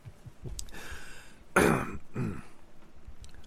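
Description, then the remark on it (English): A person coughs and clears their throat from allergies, a harsh burst followed by a shorter rasping hack, with quieter breathy throat noises before and after. No one speaks. “excuse me don't die i'm dying um damn hang on i'll cut this part out i would help but i don't know what the fuck y'all are fucking allergies”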